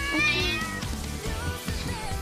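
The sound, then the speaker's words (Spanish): A cat meows in a drawn-out, wavering cry lasting a couple of seconds, clear, with faint background noise and no talking. “Acá hay un gato que.”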